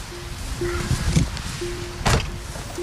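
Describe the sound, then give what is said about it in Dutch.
Getting into a car belonging to someone from Windpark Krammer: a steady electronic chime drones in short bursts while a car door opens and shuts with a solid thud, amid faint rustling. “Dan stappen we even de auto in”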